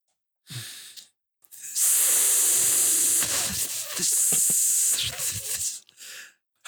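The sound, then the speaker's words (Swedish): A voice imitates a hissing snake with long, loud, breathy hisses, a short burst first, then a sustained stretch of about four seconds broken by brief catches. “Var det en orm? Eller? Jag tror det är en orm, va? ja.”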